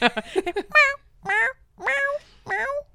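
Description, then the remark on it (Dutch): A cat at a cat flap meows repeatedly: a few short chirps, then four drawn-out, rising-and-falling meows in a steady rhythm with brief pauses between them. The calls are clear, with no talking. “Je hebt het vaker gedaan door dat luikje. Het is jammer dat de microfoon nu niet bij de kattenluik staat.”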